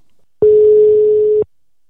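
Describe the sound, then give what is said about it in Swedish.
A single telephone ringing tone sounds while a call is placed: one steady, fairly loud electronic beep lasting about a second, with no voices, and silence before and after. “nu tycker jag att vi ringer upp Maria och ser vad hon har att säga om just gruvfrun”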